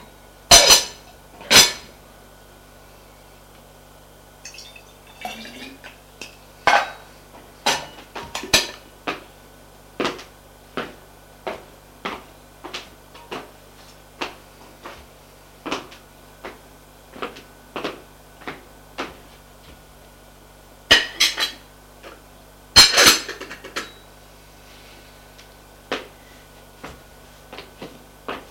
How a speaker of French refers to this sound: Puis, va remettre la casserole à la cuisine.